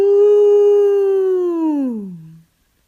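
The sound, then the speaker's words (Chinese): A grandfather standing on a hilltop gives a single long, wolf-like howl, loud and steady in pitch for about two seconds before sliding downward and fading out. No other sounds accompany it. “”说着，他站在山顶上长笑起来。呜！”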